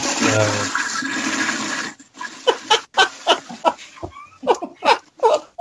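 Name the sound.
toilet flushing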